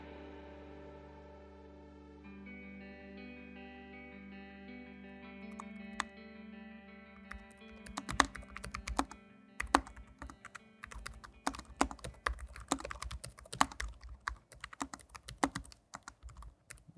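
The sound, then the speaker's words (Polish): Steady tonal hum for several seconds, then brisk, irregular clacking of fingers typing on a ThinkPad laptop keyboard, fairly loud, continuing to the end without any voices. “elementem również takim unikalnym dla ThinkPada i tutaj naprawdę jest to duży kawałek religii marki ThinkPad, to jest klawiatura.”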